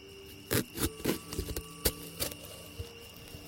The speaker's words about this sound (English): Alright, so first things first. I gotta pour the salt out and create the circle.